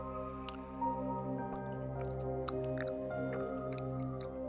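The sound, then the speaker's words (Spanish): Several soft, wet squelching clicks pop up irregularly, brief and fairly faint, over a steady low humming drone with no talking. “Después de cuatro estantes, escuché un chasquido húmedo”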